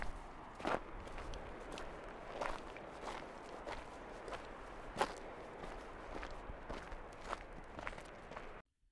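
Steady footsteps crunch over rough ground on a mountain hike at a walking pace, a dozen or so evenly spaced steps with a faint outdoor background and no talking.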